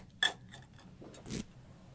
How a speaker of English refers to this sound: and now he's got a cup full of junk that he's digging through.